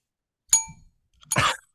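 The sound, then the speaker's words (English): A small bell, rung during a microphone volume test, gives one short, bright ding that fades fast, then a duller, muffled, noisier strike follows a moment later. Both are fairly soft, with no talking. “It was I it was more ring. muted. Yeah, it was more muted.”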